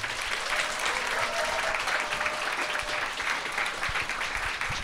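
Steady applause from an audience welcoming a guest teacher on stage, many hands clapping in a dense, continuous patter that holds at an even loudness throughout, with no voices standing out.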